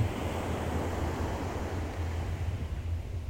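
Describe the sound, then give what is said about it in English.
Steady ocean surf washing continuously, a dense, even rush of water with low rumbling underneath and no clear breaks between waves, heard alone without any voices. “And with easy, nimble fingers, you fold the page into a paper boat the waves lap up to meet you.”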